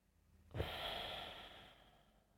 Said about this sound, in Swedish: Så fyll på på inandning och släpp på utandning.